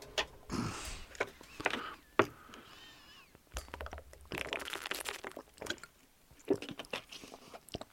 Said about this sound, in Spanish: A ver, un trago de agua.